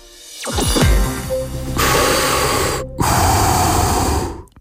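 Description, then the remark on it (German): Mechanical respirator breathing, a loud hissing inhale followed by a long rasping exhale, steady, with no talking. “dieses Ein- und Ausatmen ist halt eines der vielen Geräusche, die sofort Bilder im Kopf entstehen lassen”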